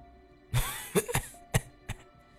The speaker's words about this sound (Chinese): 我这话音刚落，就听到从咱们身后的洞子里头传来几声咳嗽声。